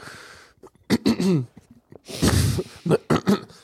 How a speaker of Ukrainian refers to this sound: Просто кашель. Да, в тебе коронавірус. Ні, не, ні, в мене такий е, мокрий кашель.